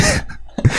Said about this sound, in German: ja, Gesundheit